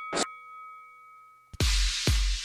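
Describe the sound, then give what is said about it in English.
An opening bell is struck once and its bright tone hangs in the air, followed by two loud, heavy clangs about half a second apart, forceful, with no talking. “We get things rolling with the opening bell. Want to ring the bell?”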